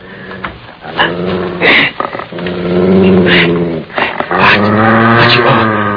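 A dog growls and whimpers, its whining pitch rising and falling in long strained stretches with brief pauses in between; no one speaks.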